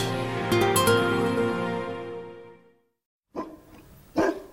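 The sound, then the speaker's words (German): A St. Bernard dog, a Swiss dog breed, barks twice, loud, with a pause between the deep woofs, after a sustained tonal sound fades into brief silence. “Der Bernhardiner gehört zum Schweizer Klischee genauso wie das Alphorn, das rote Taschenmesser, die Uhren, die Schokolade und die Banken.”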